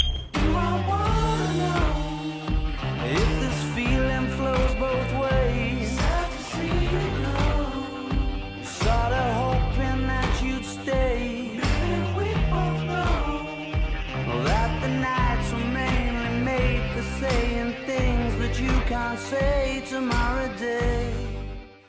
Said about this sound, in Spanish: es esa distorsión que apaga y prende la guitarra que en este primer tema del álbum suena así.